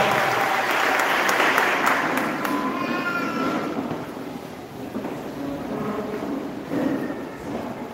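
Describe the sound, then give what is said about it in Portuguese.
An audience applauds the Lord during worship in a dense, sustained wash of clapping, strongest over the first couple of seconds and easing slightly after, with a few faint voices calling out over it. “Pode dar um aplauso ao Senhor.”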